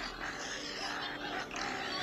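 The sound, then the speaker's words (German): Pig-like grunts and squeals from a video game in which the characters have turned into pigs, a dense, noisy burst of animal sounds filling the whole moment at steady loudness, harsh, with no clear pauses. “Alle sind, haben sich in Schweine verwandelt,”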